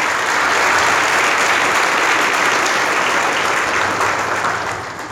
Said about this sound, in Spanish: Denle un aplauso, Señor, esta mañana, por favor.